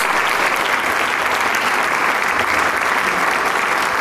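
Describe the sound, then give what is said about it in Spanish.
Sustained, dense applause from a large audience, a steady wash of clapping hands at an even, loud level for the full length with no voices standing out, as the whole orchestra stands to receive it after a performance of Charles Gounod's Faust. “Toda la orquesta está de pie recibiendo el aplauso del público después de esta maravillosa interpretación del Fausto CG4 de Charles Gounod”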